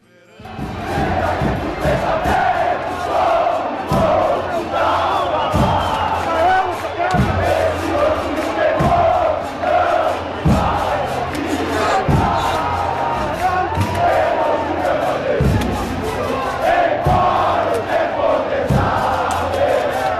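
A large crowd of Juventude football supporters chants a terrace song together, a loud massed roar of voices carried along by steady, regular bass-drum thumps throughout.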